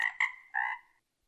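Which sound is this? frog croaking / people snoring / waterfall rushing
frog croaking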